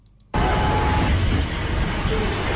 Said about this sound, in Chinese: 这是开工两周后的北京市西二旗地铁站。早晨七点半，这里已经出现人流高峰，满眼都是健步如飞、奔向岗位的互联网人。